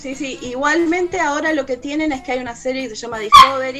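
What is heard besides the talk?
dog barking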